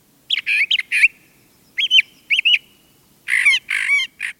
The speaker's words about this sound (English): But they're not the only mimic birds in town. Brown thrashers also learn songs from nearby birds and add them to their repertoire.